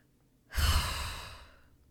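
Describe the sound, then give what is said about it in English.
A single drawn-out sigh, voiced as an imitation of a sigh heard in a kitchen: a breathy exhale that swells suddenly, then fades slowly over about a second. “and as I'm walking around my kitchen, and keep in mind everybody's in their rooms, everybody's sleeping, I hear a sigh. Like”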